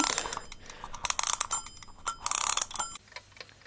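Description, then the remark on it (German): Rapid ratcheting clicks of a wind-up alarm clock being wound, in bursts with faint metallic jingles from its bell, ending in quieter mechanical ticking. No one speaks. “Dann würde ich jetzt hier einfach mal direkt diesen Wecker aufziehen.”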